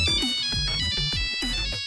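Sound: phone ringing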